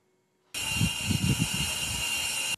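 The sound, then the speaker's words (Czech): A steady, loud hiss of natural gas rushing through gas pipeline pipes in western Ukraine starts abruptly after a brief silence and holds constant, with a low rumbling churn beneath it near the start. “V trubkách plynovodu syčí nerostné bohatství západní Ukrajiny”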